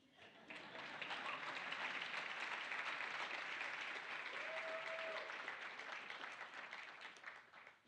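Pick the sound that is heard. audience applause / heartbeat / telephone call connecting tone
audience applause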